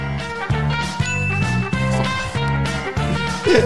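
A mobile phone ringtone plays a bright, repeating electronic melody with steady rhythmic notes, fairly loud, with no one talking over it.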